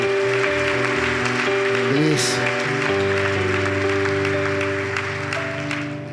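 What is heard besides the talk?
audience applause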